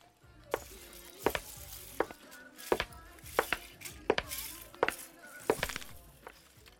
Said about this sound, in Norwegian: det tidløse Lego-fenomenet, da. som er å trø på Lego. Å tråkke på Lego, liksom. Ja. Det er utrolig vondt. La oss høre.